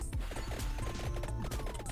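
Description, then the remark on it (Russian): Video game sound effects of a character tripping over a small grave, falling and losing consciousness, a jumble of thuds and crashing impacts layered over steady tonal game music, loud with no voices. “Споткнулся, упал, все.”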